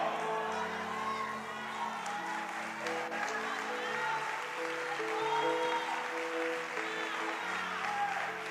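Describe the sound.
An audience applauds in a dense, steady wash of clapping that holds at an even loudness for the whole stretch, with voices and sustained musical tones running underneath.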